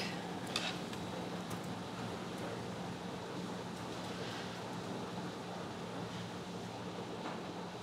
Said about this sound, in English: And there's an air purifier they put in for COVID humming towards the back of the room.